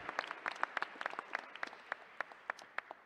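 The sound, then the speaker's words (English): An audience applauds a filmmaker for his film, many overlapping hand claps forming a dense, crackling roar that gradually thins out over a few seconds, with no voices heard. “And can we hear one more time for John Janitis, the filmmaker who made that incredible film?”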